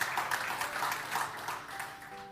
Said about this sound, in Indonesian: Yang setuju, Tepuk tangan bagi Tuhan Yesus.